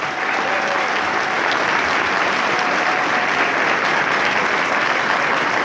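Sustained, dense applause from a crowd, a steady loud wash of many hands clapping without pause for several seconds, no voices standing out.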